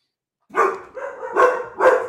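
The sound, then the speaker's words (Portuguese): A dog barks three times in quick succession, loud, each bark rough and slightly drawn out, with no talking around it. “Os cães concordam.”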